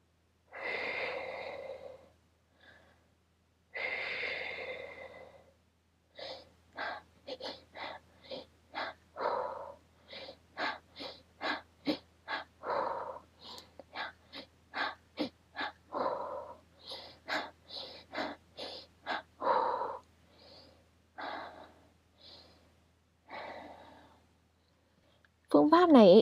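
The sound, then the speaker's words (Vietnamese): A person demonstrates a breathing technique, breathing audibly in a steady repeating pattern: two to three quick, sharp inhales followed by one longer, slower exhale, cycling over and over with no talking. “cách thở của phương pháp này sẽ là bạn hít vào nhanh 2 đến 3 nhịp rồi thở ra chậm một nhịp và cứ lặp đi lặp lại như thế tạo thành một cái nhịp điệu ấy”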